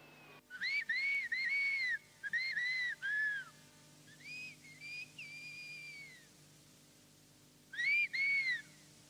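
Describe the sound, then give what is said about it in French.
Loud human whistling of Béarnais patois adapted into a whistled language, practised by shepherds in the Ossau valley, in modulated, speech-like phrases: several quick bursts of rising and falling notes, a softer sustained stretch in the middle, then a final pair of bursts, with no talking. “Il s'agissait en fait du patois béarnais adapté en sifflement, en particulier pratiqué par les bergers.”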